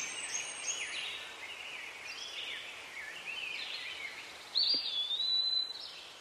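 Birds chirp and trill continuously in a forest, a layered chorus of high calls with one brighter, louder song rising near the end over a soft background hush.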